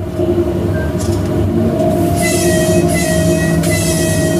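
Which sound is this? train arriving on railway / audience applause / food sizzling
train arriving on railway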